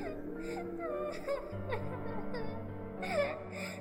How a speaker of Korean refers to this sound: 그러나 그 소리는 바람 소리가 아니었고 저희 등 뒤에서 웬 여자가 서럽게 흐느껴 우는 소리였습니다.